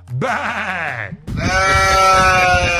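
goat bleating

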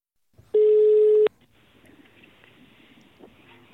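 telephone call being redialed

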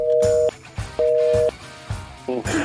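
phone line tone

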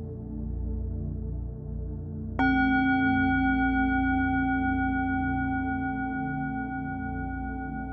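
tibetan bell ringing

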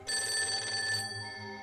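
old telephone bell ringing

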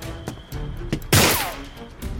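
gunshot

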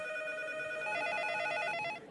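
telephone bell ringing

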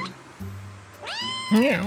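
cat meowing

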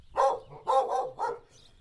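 dog barking

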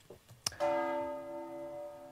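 church bells ringing

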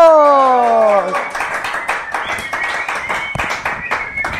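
clapping applause

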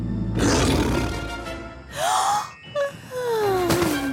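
tiger roaring

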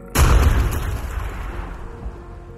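loud bomb explosion

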